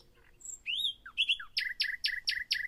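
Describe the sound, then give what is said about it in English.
A nightingale sings clearly, opening with varied whistles and sliding notes, then breaking into a quick run of five identical repeated phrases, with no voices around. “The nightingale has a beautiful voice, and they typically have as many as 180 different songs made up of a vocabulary of 250 unique sounds.”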